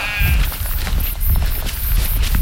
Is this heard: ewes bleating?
yes